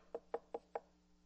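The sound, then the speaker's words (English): Four quick, evenly spaced knocks on a wooden door, fairly loud, with a low steady hum underneath and no voices. “And he knocked at the door.”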